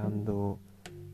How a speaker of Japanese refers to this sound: ちょっと今猫の声が聞こえましたけど